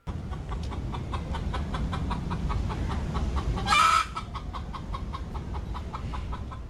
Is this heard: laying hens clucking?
yes